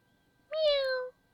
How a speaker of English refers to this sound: 喵喵。I wonder what that poor kitten wants, cat. 我想知道那只可怜的小猫想要什么。